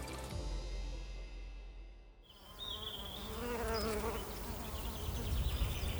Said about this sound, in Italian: fioriture estive bruciate dal caldo e api allo stremo, costrette ad allungare i voli per trovare un po' di nutrimento o abbeverate artificialmente dagli apicoltori per sopravvivere.